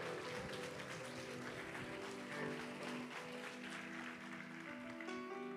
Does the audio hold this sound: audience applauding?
yes